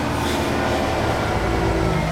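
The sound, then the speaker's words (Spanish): Heavy trucks rumble past outside, a steady, loud low engine drone with broad road noise that fills the whole moment. “Estos camiones, güey.”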